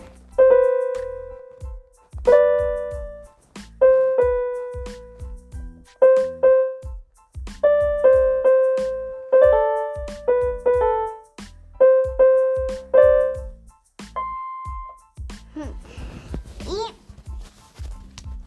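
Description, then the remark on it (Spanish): An electronic keyboard plays a simple melody of distinct, evenly paced notes over a steady low accompaniment pattern, fairly loud, ending with a brief burst of noise. “Y lo que les quería enseñar era que. yo tengo un teclado.”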